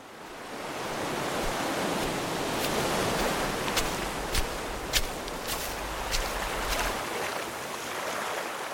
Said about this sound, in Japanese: 地中海沿いに広がる中東の国イスラエル波寄せる浜辺を眺めているとはじけた水しぶきからこの地で暮らす人が想像した短くも壮大な物語が聞こえてきます